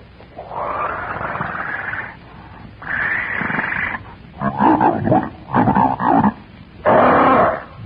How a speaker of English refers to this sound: Jabbering gutturally through thick, slavering lips, the monstrous ape reaches out a hairy arm and paw and grasps Wolf by the back of the neck.